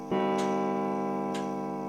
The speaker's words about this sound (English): twelve chimes. It's midnight.